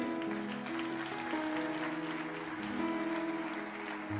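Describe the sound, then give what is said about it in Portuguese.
An audience claps steadily in applause for the Lord, a dense patter of many hands running throughout, mixed with sustained keyboard chords that hold and shift underneath. “Pode aplaudir o Senhor, você que ameaçou aí.”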